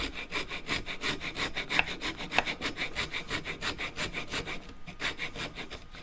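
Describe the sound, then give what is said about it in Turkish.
A fret saw cuts through wood in quick, steady back-and-forth strokes, a continuous rasping rhythm with no voices. “Ya kusura bakma yaptık yani kıl testere işte kaçırdık orayı.”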